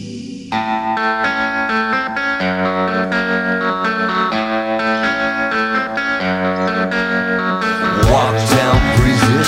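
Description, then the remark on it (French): A loud, full rock track plays throughout, with distorted electric guitar and bright keyboard chords over a steady beat, the mix swelling into a denser, wavering section near the end. “des petits coups de guitare un peu vicieux, des petits, des petits claviers qu'on aime bien”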